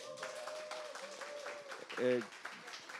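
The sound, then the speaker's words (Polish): A small live audience in the Big Book Cafe claps steadily for about three seconds, a dense patter of many hands, with a brief vocal sound rising out of the applause near the end. “Bardzo dziękuję za te spontaniczne brawa.”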